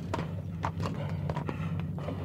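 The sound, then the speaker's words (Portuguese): Horse hooves clip-clop in a steady, fairly quick rhythm of sharp knocks as a horse-drawn carriage rolls up and stops, over a low rumbling hum. “Na manhã do dia 1 de julho de 1874, os irmãos brincavam na porta de casa em Germantown, um bairro de classe média alta da época, na Filadélfia, Pensilvânia, quando uma carruagem puxada a cavalo parou em frente a eles.”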